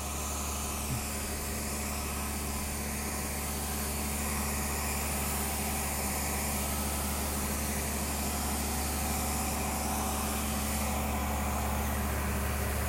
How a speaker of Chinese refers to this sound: 哦，原来这台车是发电机哦，大台。